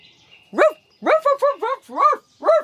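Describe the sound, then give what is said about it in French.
A big white and beige dog named Isa barks six times in quick, uneven succession, loud, each bark sharp and tonal, with no other sounds around it. “C'est un gros chien blanc et beige, très affectueux, qui adore les câlins et courir dans le jardin.”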